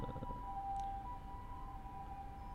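An emergency vehicle siren wails in a steady two-tone pattern, heard at moderate distance over low traffic rumble, with no one speaking.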